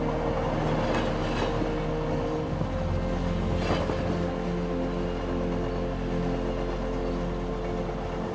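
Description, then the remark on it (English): A train rolls steadily along the rails with a continuous low rumble and humming drone, broken by a few sharp clacks of the wheels, heard from inside the carriage with no one talking. “and you can feel the rhythmic movement of the train, gently moving you back and forth.”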